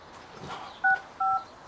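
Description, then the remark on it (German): Two short electronic keypad beeps from a mobile phone being dialed to call a brother, each a steady dual tone lasting a fraction of a second, separated by a brief pause over quiet background noise. “Ich ruf mal meinen Bruder an.”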